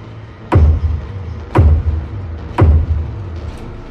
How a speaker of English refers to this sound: The tapping moved down the bedroom wall and into the hallway, sometimes sounding off the floors, sometimes the walls. It got slower, heavier, closer to the banging I had heard earlier.